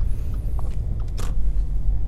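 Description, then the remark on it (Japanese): A steady, deep engine-and-road rumble inside a moving car on the drive home, constant and fairly loud, with a couple of faint brief clicks and rustles above it and no talking. “えー、今日も帰りの車の中から、えー、お届けをしてまいります。”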